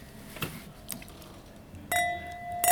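Wine glasses of Stuttgart Riesling clink together in a toast, a few bright ringing taps, the last one sustaining a clear tone as it rings out; no one speaks.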